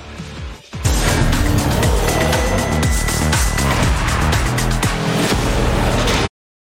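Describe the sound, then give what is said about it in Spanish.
The loud, roaring engine of Checo Pérez's Formula 1 race car blasts in after a short quiet start. Its pitch shifts and sweeps up and down steadily for several seconds before cutting off abruptly. “Al regresar, este es el coche de Checo Pérez.”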